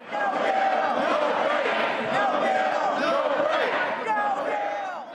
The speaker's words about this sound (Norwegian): Uten en lov, ingen pause, ropte demokratene taktfast. De holdt på i tolv timer og langt inn i natta.